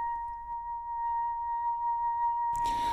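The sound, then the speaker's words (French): Contemporary classical music by composer Frédéric Durieux: a single steady, piercing tone held unbroken over a low rumble, then a sudden burst of harsh, noisy texture near the end. No voices. “C'est sa musique que vous pouvez entendre en fond.”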